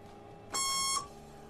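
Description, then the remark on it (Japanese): A single electronic chime from a bus stop request button rings out for about half a second, bright and tonal with stacked harmonics, then cuts off cleanly against a quiet background. “ボタンの形と音の組み合わせっていうのは決まりがないんですよあそうなんですかバスっていうのはイージーオーダーなんでバス会社がうちはこのボタンにこの音で作ってねっていうふうにあのオーダーするんですねそうですか、えー、ですから必ずしもこの音っていうのがないんですよ”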